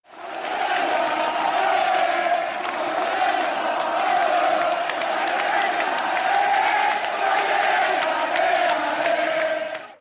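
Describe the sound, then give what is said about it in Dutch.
A large stadium crowd of Sampdoria supporters sings in unison for Fabio Quagliarella after his 1-0 goal against Udinese, a dense, steady roar of many voices holding a chant throughout, loud and continuous with occasional sharper shouts rising above. “Ja, toegezongen door de supporters nadat uh, Quagliarella de 1-0 maakte voor Sampdoria tegen Udinese.”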